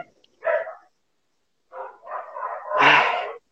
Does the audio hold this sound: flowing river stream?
no